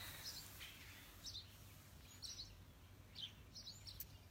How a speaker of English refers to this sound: It's a fine Friday morning. Sunny and the birds are chirping.